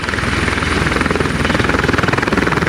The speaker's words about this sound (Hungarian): A helikopter dübörögve ereszkedett alá. Törzse alatt vörös lámpa villogott fényszórói alatt tejfehérre olvadt az éjszaka a betontető.